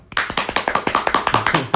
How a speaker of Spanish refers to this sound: Así que este aplauso es para vos.